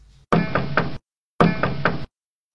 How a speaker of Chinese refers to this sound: 一摇一摆，一摇一摆的下了山，过了河，走到了石榴树下，举起爪子敲小朵朵的门。